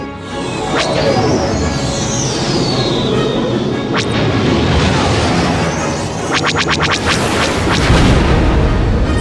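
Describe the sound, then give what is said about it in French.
A steady spaceship engine roar runs underneath sweeping sci-fi tones, a few sharp blaster shots fired at the spaceship's engines, then a rapid volley of zaps and a loud, booming explosion near the end. “Ok, on n'a pas beaucoup de temps, il va falloir lui couper les moteurs. Tire dessus”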